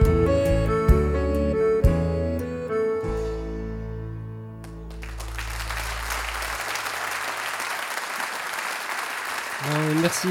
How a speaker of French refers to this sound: merci. On avait dit non, ne nous applaudissez pas, ne nous applaudissez pas.